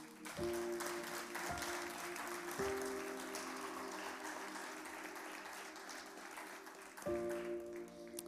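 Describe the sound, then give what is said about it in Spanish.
An audience breaks into sustained applause for Jesus, a dense crackle of many clapping hands with steady sustained organ-like chords beneath that shift a few times, no speech over it. “Entro en las últimas tres o cuatro cosas que quiero decirle, pero necesito que usted le dé un aplauso a Jesús”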